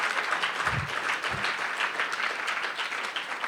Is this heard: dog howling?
no